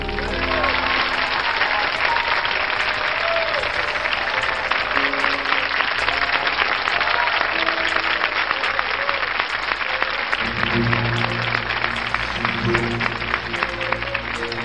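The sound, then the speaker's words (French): Loud, sustained applause from a large audience for a singer fills the whole stretch, a dense steady clatter of clapping with a few sustained tones from music underneath, growing fuller toward the end. “Vous pouvez l'applaudir très fort”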